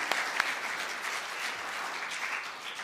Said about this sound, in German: Und ich denke, ihr habt wirklich an dieser Stelle einen Applaus von der Gemeinde verdient. Ja? Vielen Dank euch.